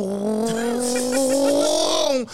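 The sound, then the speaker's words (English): A voice imitates an airplane engine, like the noise made when playing airplane to feed a baby, with a sustained, buzzing hum that rises slightly in pitch, then cuts off abruptly. It is fairly loud, with no other talk. “like make so, noises like when you uh, do the airplane to feed a baby and shit.”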